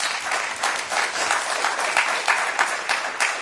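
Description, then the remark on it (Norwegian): A crowd applauds steadily, a dense patter of many hands clapping at an even, fairly loud level with no voices standing out, lasting a few seconds. “Nå kunne det stått applaus her, men det gjør det ikke.”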